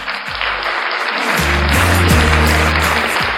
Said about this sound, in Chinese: 那现在，让我们有有请 DJ FM 六八零九二九现代真实灵异事件博主播小莫，让我们一起来掌声有请小莫闪亮登场。